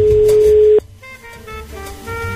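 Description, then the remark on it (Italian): A single steady telephone ringback tone after a phone number is dialed, a pure beep lasting under a second, then it cuts off abruptly and faint muffled voices or tones from the line follow. “Ah, squilla?”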